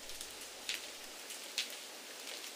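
Heavy rain splashing down on persimmon tree leaves and stone paving slabs in the evening, a steady hiss broken by two sharper drip-like splats, with no voices present.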